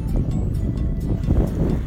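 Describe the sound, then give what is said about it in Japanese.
Steady, low rumbling wash of ocean surf breaking along the shore, continuous and fairly loud throughout, with some wind buffeting the microphone and no voices. “海の音が聞こえますでしょうか”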